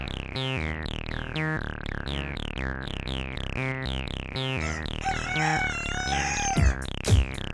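A steady, rhythmic run of loud chicken clucks repeats throughout, joined near the end by a rooster's crow, with no voices present.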